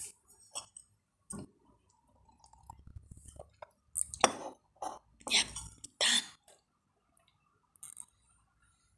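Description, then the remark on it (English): Someone sips coffee from a cup: light clinks of the cup, then a few short, breathy slurps in quick succession, followed by a soft throat-clear and quiet pauses between sounds. “I'm gonna take a sip of my coffee again.”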